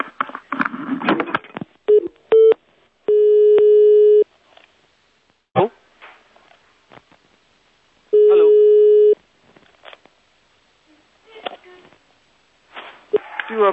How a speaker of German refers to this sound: Bei mir hat gerade das Telefon geklingelt. Ich gehe ran und jetzt habe ich Sie am Telefon.